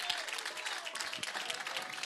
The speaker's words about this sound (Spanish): denle un aplauso fuerte al Padre, Hijo, Espíritu Santo. Más fuerte, más fuerte que es para Él.